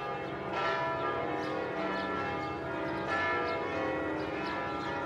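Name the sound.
church bells tolling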